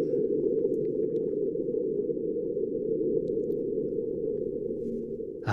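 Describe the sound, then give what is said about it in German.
A sonified recording of a marsquake, caused by rock cracking, from the seismometer aboard the Mars InSight probe: a steady, dull low rumble that drones on for several seconds with a faint grainy texture, ending in a brief click, with no voices. “Also das klingt jetzt nicht so wahnsinnig gewaltig, wie man sich ein Beben auf der Erde vorstellt.”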